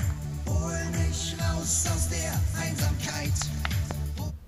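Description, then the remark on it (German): Music plays continuously from a Bose SoundLink 3 portable Bluetooth speaker from 2014, with steady harmonic tones, a driving beat and sung melody lines, at moderate loudness throughout, with no talking over it. “Ja, so klingt sie und äh, ich bin wirklich sehr zufrieden mit der Bose Soundlink 3.”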